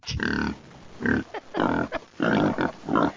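A run of about five loud, low, croaky burps with short gaps between them, each a throaty, grunting belch with no talking over them.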